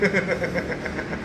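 A steady engine idles with a quick, even pulsing throb, a low rumble of street traffic continuing underneath at a moderate level.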